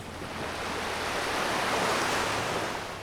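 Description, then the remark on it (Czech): Sea waves wash steadily onto a sandy beach by hotels in the early morning, several smaller waves and then a larger one, a broad hiss of surf swelling gently and receding over a person's toes and ankles, continuous with no voices. “Vlna za vlnou. Několik menších a pak jedna větší.”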